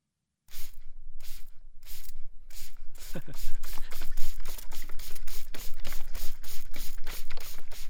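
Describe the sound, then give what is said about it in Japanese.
A rapid series of short, hissing spray-can bursts, about three per second, loud and close. The hiss sounds mouth-made, like a voice imitating an aerosol spray. “まずはね、えー、スプレーの音。”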